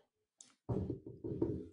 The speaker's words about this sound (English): And there ain't nothing really going on. I hear this knock at the door.